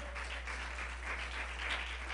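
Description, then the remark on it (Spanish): An audience at a church service applauds the Lord, breaking into steady applause, a dense wash of many hands clapping at once, moderately loud and sustained throughout with no voices standing out. “Denle un aplauso al Señor.”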